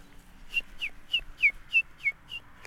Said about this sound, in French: Ça, c'est une première fauvette qui arrive dès le mois de février voilà, on l'entend là, tip le compteur d'écus. Tip tchap tchap. Comme si c'était des, des écus qui tombaient dans une euh, bourse comme euh, au Moyen Âge à la Renaissance